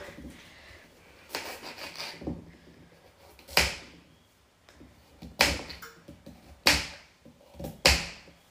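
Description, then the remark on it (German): A knife cuts through a carrot in a series of sharp, crunchy chops, about six, spaced irregularly a second or so apart. The cuts are fairly loud against a quiet background. “Du selber hier einfach durch, durch die Karotte.”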